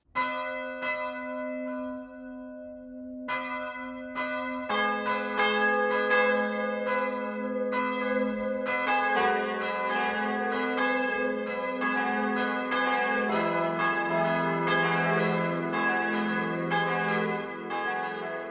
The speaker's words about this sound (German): BR Heimat, 12 Uhr läuten. Es ist 12 Uhr. Das Mittagsläuten kommt heute von der katholischen Pfarrkirche St. Jakob im oberpfälzischen Sindelbach.